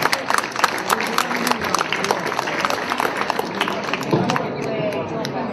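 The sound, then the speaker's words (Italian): A crowd applauds steadily as the Pink Ambassadors enter during the 'Vivi a colori' fashion show, dense overlapping claps forming a continuous bright patter that holds at an even, fairly loud level before thinning slightly toward the end. “questa sera ce lo regala con una sfilata di moda vivi a colori, vivi a colori dove stanno entrando con una testimonianza molto particolare il Pink Ambassador, che accogliamo con un bellissimo applauso.”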